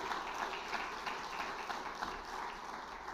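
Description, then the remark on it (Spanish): A church audience applauds young people graduating this week, many hands clapping in a dense, steady patter that holds evenly for about three seconds at a fairly soft level, with no voices over it. “Denles otro aplauso a esos jóvenes, gloria en nombre del Señor.”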